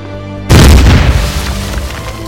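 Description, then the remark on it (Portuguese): A sudden heavy mine explosion bursts in after a brief low hum, its deep rumble and crackling shrapnel spreading loud before slowly fading into a lingering roar. “Sendo atingida por estilhaços de uma mina, vindo a falecer dois meses depois, recebendo postumamente o título de Herói da União Soviética.”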